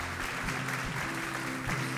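An audience applauds visiting special guests, a dense wash of many hands clapping at once, sustained and fairly loud for the full couple of seconds with no voices standing out.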